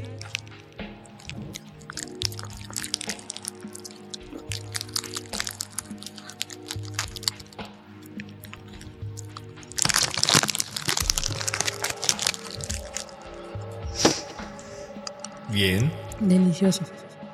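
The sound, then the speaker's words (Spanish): Someone crunches and chews mazapán peanut candy in a steady run of crisp, crumbly crackles and soft squishy mouth sounds, with louder bursts of crunching partway through and near the end. “Mm, voy a hacer también para que puedan escuchar. ¿Sabes qué? Me recuerdo esos videos de Asen.”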